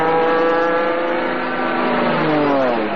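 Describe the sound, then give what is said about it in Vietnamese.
A motorbike engine roars loudly for the whole stretch, its steady drone climbing in pitch toward the end as it revs and speeds away. No voices. “bây giờ các đôi nam nữ học sinh sinh viên nhà mình toàn đi xe máy thôi Phóng cứ phè phè”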